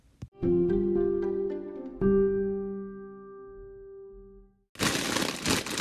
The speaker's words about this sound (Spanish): no tengo ni idea de dónde está saliendo la interferencia, no la está captando nuestra base de datos.